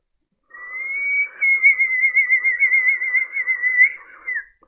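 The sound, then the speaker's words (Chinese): A single long, sustained mouth whistle sounding in darkness, holding a steady high pitch with a slight wavering warble, rising briefly at the start and dipping at the end, loud and alone with no talking. “就在这个时候，黑暗中突然响起了一声口哨声，地上爬动的蛇立即不动了，又是一声口哨声。”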